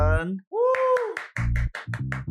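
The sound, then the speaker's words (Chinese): Short burst of applause: a few whooping, cheer-like voices open it, followed by a quick, uneven run of about eight loud claps layered over low tones. “谢谢你们的掌声！”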